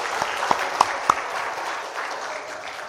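A crowd claps steadily for a brother after he recites a verse from Deuteronomy, a dense wash of applause with a few sharper claps standing out near the start, holding at an even level throughout.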